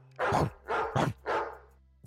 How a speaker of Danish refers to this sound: du kunne være skide god til at gengive en, en hund? Må jeg lige høre dig?